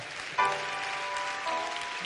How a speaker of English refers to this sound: Let's get the Lord a hand clap for them.